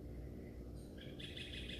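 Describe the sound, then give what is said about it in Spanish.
Birds chirp softly, a thin, high twittering that starts partway through and grows busier, layered over a steady low background rumble with no voices. “qué sé yo, qué lindos los pajaritos.”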